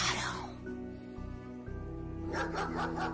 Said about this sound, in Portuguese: São os cães. Os cães voltaram.